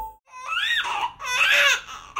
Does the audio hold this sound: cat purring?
no